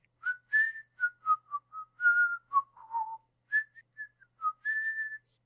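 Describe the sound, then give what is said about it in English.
A dog catcher, in the story of Tramp, whistles the tune "Where, Oh Where Has My Little Dog Gone?" as he goes around: a clear, tonal whistle through short and held notes, rising and dipping in pitch with brief pauses between phrases. No one talks over it. “And um, the dog catcher, ironically, goes around going.”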